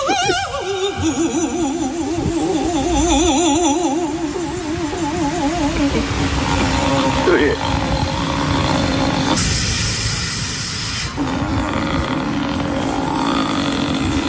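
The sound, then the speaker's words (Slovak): A woman at a celebration by a bench loudly imitates a vehicle with her own voice: strained, warbling screeches with wavering pitch, then a sharp airy hiss like bus doors releasing, followed by more rough, engine-like vocal noise. No real trolleybus or bus is involved. “Nie, toto nebol trolejbus, ani nejaký autobus, čo by otváral dvere. Toto tá deva stvárala tam normálne akože svojim hlasom.”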